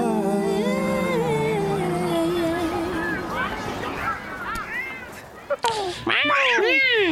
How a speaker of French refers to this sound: Ah, il y, a, un, chat